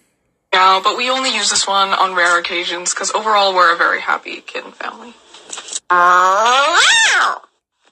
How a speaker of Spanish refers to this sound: Ahora viene el maullido de cuando está enfadado.